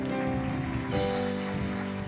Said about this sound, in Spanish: Un aplauso al Rey de Gloria. Apláudale, apláudale.